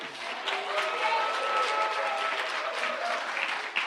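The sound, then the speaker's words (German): Steady audience applause during a talk about Jesus, meant for the speaker's wife. It fills the whole stretch, a dense wash of many hands clapping at a fairly even level, with faint voices murmuring underneath. “Das war jetzt eigentlich der Applaus für meine Frau, die hat mich nämlich auf die Idee gebracht.”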